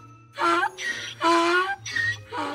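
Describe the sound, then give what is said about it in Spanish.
A child's voice imitates a donkey's bray: a loud hee-haw repeated about three times, alternating voiced honks with breathy high squeals, over a low steady hum. “… intenta hacer el sonido que emiten los burros.”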